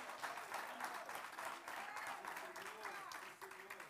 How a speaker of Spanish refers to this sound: Aleluya, eso merece un aplauso. Merece aplauso, merece aplauso.